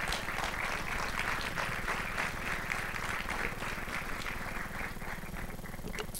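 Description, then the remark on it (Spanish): A crowd applauds the Lord with dense, steady clapping that holds at an even, fairly loud level for about six seconds, many hands blending into a continuous rattling wash. “Le puede dar un aplauso fuerte al Señor.”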